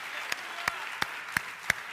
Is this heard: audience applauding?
yes